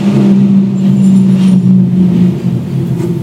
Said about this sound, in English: I'm literally holding my finger up because all I hear in the headphones is a truck.